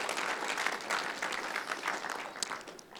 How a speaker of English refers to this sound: Thank you, musicians. That was amazing. Can we just give the worship team a hand?